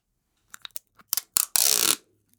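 Tape is pulled off a roll: a few short crackly snaps, then one loud, sustained ripping screech lasting about half a second, with no voices.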